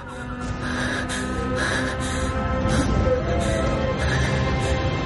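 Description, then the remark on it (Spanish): Heavy, agitated breathing of a woman who has just come out of a basement and leans her back against a wall, with quick ragged breaths repeating roughly every second over a steady droning background of low music or ambience. “Ella sale del sótano y apoya la espalda en la pared con la respiración agitada.”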